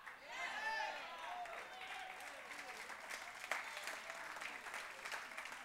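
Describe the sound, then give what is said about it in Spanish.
An audience applauds in steady, dense clapping that holds for several seconds, with raised voices and shouts rising over the applause near the start. “Vamos, aunque no aplaudan y digan, men, es verdad.”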